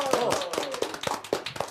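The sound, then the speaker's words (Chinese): A short burst of clapping welcoming a mystery guest on the show 金钱爆, sharp hand claps in a quick, fairly steady rhythm, about seven or eight beats, with a voice faintly audible underneath at the start. “也掌声欢迎一下这位神秘嘉宾。”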